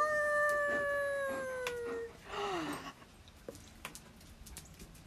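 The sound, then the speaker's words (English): A person imitates a wolf howl with a long, loud, steady tone that sags slightly in pitch, then a shorter sliding howl, followed by faint clicks and rustling. “Let me hear your best wolf howls.”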